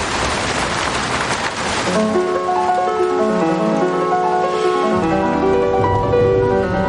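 A steady hiss of falling rain fills the first couple of seconds, then a soft melodic music passage rises and carries on over the fading patter.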